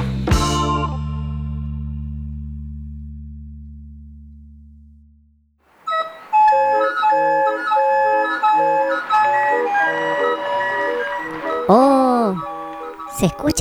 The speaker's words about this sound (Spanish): organillero. ¡Wow! ¡Qué bonito!